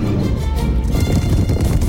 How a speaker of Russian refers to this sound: Быки начинают свой бег по огороженной изгороди улицы, перед ними бегут несколько мужчин. Огромные спины быков и широкие рога колышутся в такт бегу.